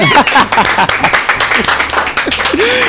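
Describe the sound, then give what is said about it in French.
A radio show audience breaks into steady applause for a guest, a dense rapid patter of many hands clapping at once, with scattered voices and a few rising whoops mixed into the crowd noise. “Allez, on applaudit”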